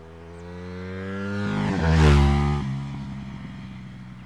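A motorcycle engine idles with a steady harmonic drone, then revs up sharply to a loud peak around the middle and drops back to a rough, burbling idle. No talking.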